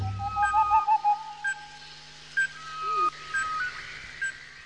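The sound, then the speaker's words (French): Owls hoot at night in a forest: several short, whistled hoots at a steady pitch, one with a brief wavering trill, scattered sparsely over a quiet background with no talking. “Sauf bien sûr quelques chouettes et un vieux hibou.”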